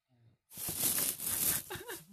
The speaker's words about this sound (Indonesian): Biar kresek-kresek. Kresek-kresek gitu. Kresek-kresek.